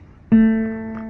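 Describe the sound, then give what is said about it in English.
A single plucked guitar note, an A played on the G string with the second finger, rings out clearly after a short pause and sustains with a slow, gentle decay. No one speaks. “That your second finger that's on the G string should sound like”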